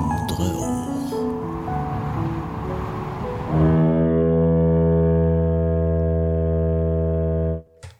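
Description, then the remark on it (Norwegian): A short jingle of layered tones for a history segment builds, then settles into a loud sustained chord that holds steady for several seconds before being cut off abruptly near the end. “Vi må gjøre noe med den jinglesen. Det derfor jeg, jeg, brått- jeg avslutta den brått for å markere eh, en tanke.”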